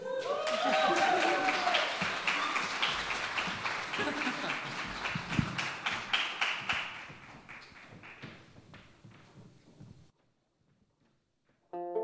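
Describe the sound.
Audience applause swells loudly with dense, rapid clapping, then thins into scattered individual claps before fading to silence, with some voices mixed in early on.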